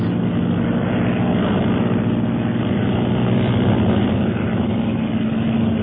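A propeller airplane engine drones steadily and loudly overhead throughout, a continuous low rumbling hum that holds an even level with no pauses and no voices.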